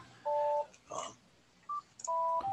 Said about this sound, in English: What's that little beat there in the background? That is my phone, which is annoying the holy hell out of me.